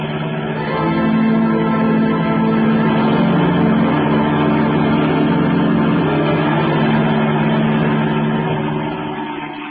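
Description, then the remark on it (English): A taxi engine roars steadily as it speeds through traffic, loud, its low droning hum holding without a break for the whole stretch, with no voices over it. “Okay, lady. But this is going to be one fast ride.”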